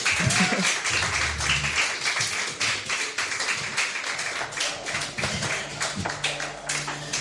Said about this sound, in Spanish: Gracias, un aplauso para él.